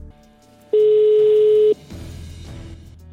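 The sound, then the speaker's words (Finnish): A single steady telephone ringing tone on a phone line sounds for about a second, loud and clear, then cuts to faint line hiss and background noise, as a call is placed to a selected contest participant. “Mutta nyt lähdetään kokeilemaan, saadaanko valittu kiinni.”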